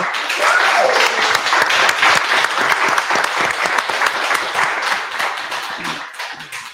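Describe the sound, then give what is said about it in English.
An audience applauds with dense, steady clapping that holds strong for several seconds, then gradually thins and fades toward the end. “Je pense qu'il mérite une bonne main d'applaudissement.”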